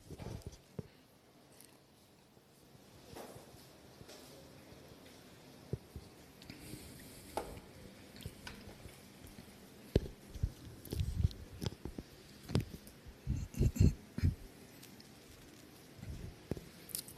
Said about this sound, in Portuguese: Enquanto isso, eu tomo uma água.